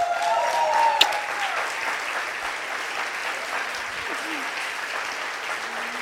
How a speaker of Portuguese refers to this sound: Vamos aplaudir o Senhor por essa gata.